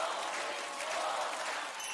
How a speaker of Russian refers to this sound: Это типичная представительница старого шоу-бизнеса, которая выступает на голубых огоньках, где все вокруг зале аплодируют, улыбаются, смотрят и говорят, потрясающе, но на самом деле нет.